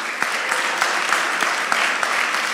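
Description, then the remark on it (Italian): A crowd applauds three young people steadily, a dense wash of many hands clapping at once with occasional sharper claps standing out, sustained at an even loudness throughout. “Ora sono stati loro tre, fate un applauso ai ragazzi.”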